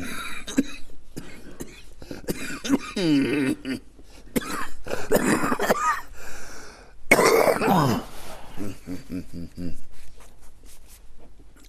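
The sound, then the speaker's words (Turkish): A person coughs and clears their throat repeatedly in several rough bursts, with voices murmuring in between and a loud, harsh cough near the middle. “Bir öksürük var bir ara verelim şu anda.”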